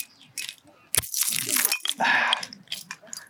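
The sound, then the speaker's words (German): Metallic jingling of keys, with a sharp click partway through as a beer bottle is pried open using them, followed by more rattling and scraping. “Ich glaube auch, das Rascheln von dem Schlüssel ist einfach viel lauter als das Bier selbst.”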